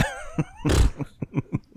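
Someone clears their throat with one harsh, rasping burst, followed by a few short, quieter guttural hacks in quick succession, fairly close and without any talking.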